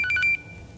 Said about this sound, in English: Well, that's two phone calls during this,